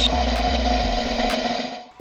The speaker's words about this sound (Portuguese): Rufem os tambores.